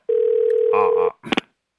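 A steady, unwavering telephone dial tone as a call is placed to a mother hums for about a second, with some noise rising over its end, followed by a couple of quick, sharp bursts of sound.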